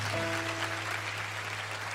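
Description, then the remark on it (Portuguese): A crowd applauds the Holy Spirit at a preacher's call, a dense, even wash of many hands clapping at constant loudness for two seconds, with a low electrical hum and a faint sustained keyboard tone underneath. “Dá uma salva de palmas para o Espírito Santo.”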